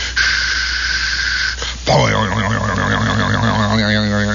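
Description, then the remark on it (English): A burst of static hisses from a shortwave radio receiver for a couple of seconds, then gives way to a sustained, wavering tone of big bell chimes as the receiver picks up the sound of Big Ben. “They're picking up the sound of Big Ben.”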